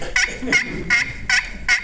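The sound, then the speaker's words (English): A turkey call imitates an excited hen: five sharp, high-pitched yelps in a quick, steady rhythm, fairly loud, with no talking. “if I give you a turkey call to take home today, would you take it home and, and put it in your turkey vest and try to call a turkey up with it?”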